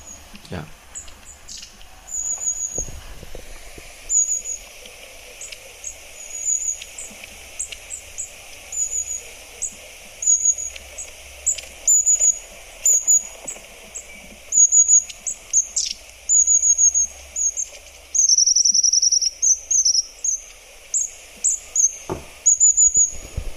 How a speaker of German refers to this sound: Soll ich mal abspielen? Ja, mach doch mal bitte. Die Schwanzmeise.